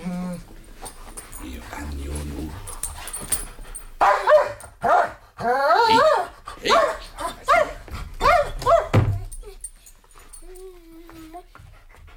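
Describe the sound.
A dog begs, barking and whimpering in a rapid series of high, pleading yelps and whines, with a brief spoken word near the start and quieter whining trailing off at the end.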